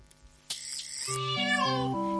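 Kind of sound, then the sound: animal, kitten meowing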